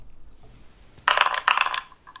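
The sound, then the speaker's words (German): A dice roll sound effect from an app: two quick bursts of bright, dense rattling clatter, one right after the other, loud, with no talking; the roll lands on six. “Es wird also anders klingen, aber ähm, die Augen werden sich trotzdem zwischen 1 und 6 bewegen.”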